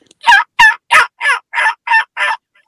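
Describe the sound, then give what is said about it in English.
A voice imitates a high-pitched turkey hen, giving seven raspy yelps in a steady, evenly spaced series, fairly loud, with no talking over it. “Um, so I can actually like make a, a more raspier pitch tone, and then I can actually sound like a like a, a box call with that that older, like that older hen with that drag, that or I can high pitch it.”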